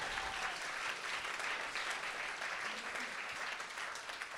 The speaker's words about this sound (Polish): Widzę, że te oklaski tak do raz, dwa, trzy, cztery, do piątego rzędu sięgają. Słuchajcie, ja wszystko widzę. I mamy taką małą zasadę, że jak jedna osoba klaszcze w tym miejscu, żeby jej głupio nie było, to wszyscy klaszczą, ok?